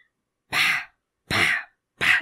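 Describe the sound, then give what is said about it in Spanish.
A voice imitates a turkey screaming with three harsh, raspy shrieks, each about a quarter second long and evenly spaced with short silences between, loud. “ya sabías que era el pobre pavo gritando así por todas las escaleras.”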